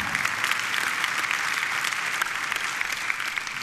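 An audience claps steadily, a dense, even patter of many hands sustained throughout without a pause, moderately loud, with no voices rising above it.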